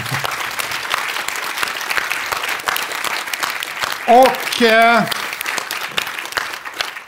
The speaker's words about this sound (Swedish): Och en stor applåd!